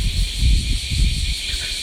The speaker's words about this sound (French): Là, il y a 4 arbres. Alors le, volume devrait être un peu plus fort. Euh, voilà, c'est dans chaque arbre après, en plein été, vous avez des millions et des millions et des millions de cigales qui s'en donnent à cœur joie.